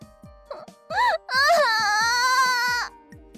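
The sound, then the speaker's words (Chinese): Someone held in another person's arms while sitting on the floor bursts into crying that builds in three wails, each longer and louder than the last, ending in a sustained, high, quavering howl over a faint steady thumping. “他怎么还哭得越来越凶了？越哭声音越大。”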